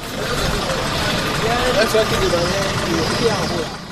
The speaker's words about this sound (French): Ce lundi, au parc de Djevali à Porto Novo, nous apercevons une voiture de 5 places se garant sur le parking avec à bord 3 passagers et une quantité importante de bananes dans le coffre et sur le porte-bagages de la voiture.